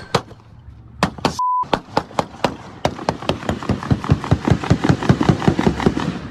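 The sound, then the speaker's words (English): A rapid string of sharp gunshots in a park, a few spaced cracks at first, then a fast, steady burst of dozens of shots that keeps going to the end, with a brief electronic beep early on. “I mean, that's that's a number of gunshots in the park.”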